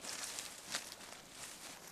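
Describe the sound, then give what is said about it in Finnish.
Quiet footsteps crunch and rustle over leafy or grassy ground outdoors as someone walks along a road away from a lake, a few soft irregular steps under a steady hiss of background noise, with no voices. “Syötetään olalle ja lähdetään kävelemään.”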